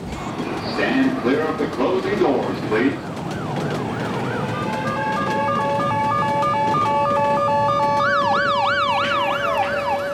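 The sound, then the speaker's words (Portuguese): An ambulance siren wails through a busy New York City street, switching between sweeping and rapid warbling tones and growing louder. Someone talks briefly at the start over steady traffic noise. “Não se assuste, é comum ouvir ambulâncias para cima e para baixo a todo momento na cidade.”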